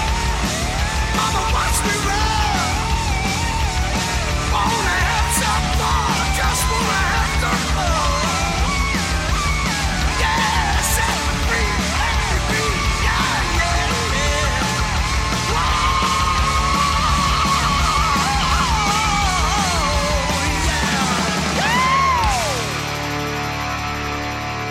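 A man screams and yells at full voice over a dense, loud rock band with pounding drums and distorted guitars, in a song recorded at City Studio, the raw shouting sustained through the track before it cuts off near the end.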